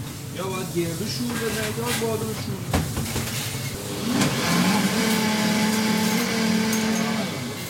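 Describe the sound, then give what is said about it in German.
A kitchen blender making pesto from olive oil and other ingredients in a coffee shop in Shiraz whirs continuously, its motor pitch climbing and settling into a steady, louder drone about halfway through, with faint muffled voices in the background. “schnappt sich den Mixer, Olivenöl und andere Zutaten und führt kurz vor, wie man Pesto zubereitet.”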